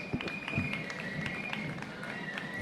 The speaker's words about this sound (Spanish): esa calle, calle donde está el ayuntamiento y donde por primera vez esta compañía Mista Jaizkibel, que ahora como escuchan reciben aplausos, va a ser recibida tanto por la Corporación Municipal como por la diputada general de Quipúzcoa, Eider Mendoza